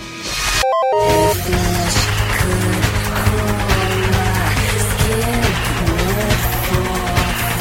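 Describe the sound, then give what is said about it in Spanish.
Background music from a racing video game's car selection screen plays loud and steady, a melodic instrumental loop with a sustained bass line after a brief choppy burst at the start. No voices. “Pero siempre con este tema de fondo, Manufacturer Car Select.”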